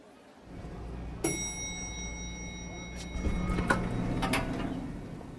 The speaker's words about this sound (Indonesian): Pintu lift terbuka dan aku langsung disambut oleh beberapa fans … yang sedang berjalan cepat menuju teater.